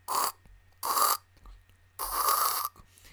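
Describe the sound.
A voice imitates the gurgling slurp of sucking mate through a metal straw: three loud, raspy bursts, the last one longer, with short pauses between and no talking.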